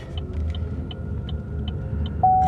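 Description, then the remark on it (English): A car engine rumbles steadily on a road with a deep low throb, followed by a brief high tone near the end; no one speaks. “Oh there's another car.”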